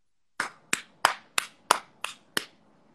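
Seven crisp, evenly spaced hand claps in a steady rhythm, each a sharp bright smack with a short tail, with no voices present.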